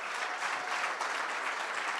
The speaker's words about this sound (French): Est-ce qu'on peut donner une main d'applaudissement à ce merveilleux groupe qui était là ce matin?